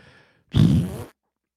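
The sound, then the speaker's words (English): A voice imitates a wet fart with a single loud, sputtering, buzzy burst lasting about half a second, preceded by a faint breathy sound and followed by silence. “and this young lady was wearing a skirt and she had shit her pants as she tried to step up at it.”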